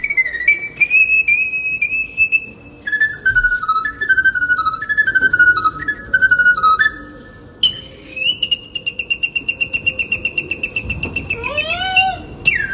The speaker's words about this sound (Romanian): care a ieșit pe balcon cu Naiu Aha. și a început să cânte.